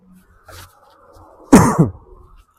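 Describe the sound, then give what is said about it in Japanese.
A loud burst of two harsh, chesty, asthma-like coughs in quick succession from a man walking outdoors, a lingering cough after a cold, with a faint rustle before and quiet afterward; no one speaks. “なんか、あの、僕、咳込んでしまうので、喘息っぽい咳が風邪をひいて治ってから、喘息っぽい咳が出てしまうんで、たまにむせます。”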